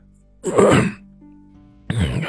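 A voice imitates an old man clearing his throat: two rough, breathy bursts, the first a longer harsh rasp, then a brief pause and a second forceful burst that cuts off abruptly.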